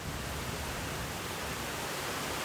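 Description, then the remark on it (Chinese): Steady falling rain makes a dense, even hiss that fills the whole stretch without pause or change in loudness. No voices or other distinct sounds stand out. “来听听下雨天的声音。”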